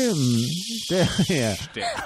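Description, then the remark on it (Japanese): A voice imitates a bear cicada's call, repeating a droning, sliding syllable three or four times in a steady rhythm, fairly loud with a hissy, buzzing edge. “いや、熊ゼミが一番。トレオン、トレオン、トレオン、”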